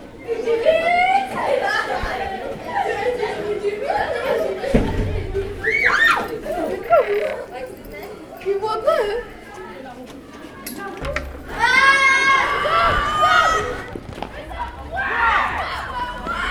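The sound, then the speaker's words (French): Pupils shouting and chattering in the corridor of a French collège (secondary school): a dense, continuous crowd of high-pitched young voices with loud yells and laughter rising out of the din throughout. “les cris des élèves dans le couloir.”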